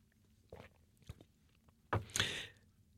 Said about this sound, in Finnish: Mä otan hörpyn vettä tässä vaiheessa.